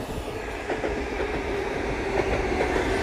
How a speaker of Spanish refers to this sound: no, ah, no puedo pararlo. Disculpar por el ruido del tren